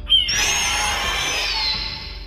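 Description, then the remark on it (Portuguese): A person voices a single drawn-out, raspy high-pitched cry imitating a classic eagle's screech, fairly loud, lasting over a second before trailing off. “Aí eu solto o barulho clássico de águia.”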